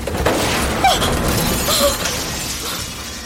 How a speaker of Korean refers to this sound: 컨테이너 지붕을 무언가가 내리쳤다. 쪽창이 찌그러지고 유리가 깨졌다.